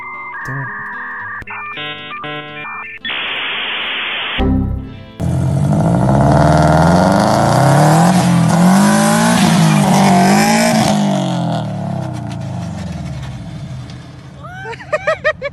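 After a few seconds of electronic beeping tones, a car engine roars and revs loudly while tires screech in a sustained burnout, the noise fading out near the end.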